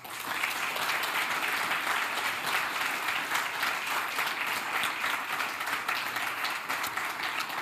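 Sustained applause from an audience for both candidates at the end of a debate in Pécs, a dense steady wash of many hands clapping at an even loudness throughout, with no speech over it.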